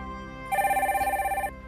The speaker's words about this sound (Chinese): 那么此时此刻呢，我们的导播也是示意有一位听众朋友打进热线电话，让我们一起来先接听一下。